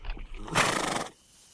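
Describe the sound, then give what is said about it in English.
A horse whinnies loudly, one sharp, shrill call lasting about half a second, preceded by low rumbling snorts and followed by quiet. “Here, let's leave the horses here.”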